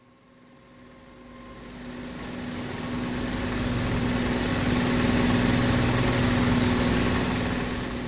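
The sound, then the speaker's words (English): A steady, continuous engine roar with a low droning hum, swelling gradually louder over the first few seconds and then holding at a constant, heavy level throughout. “It was just a continual roar. The engine would go.”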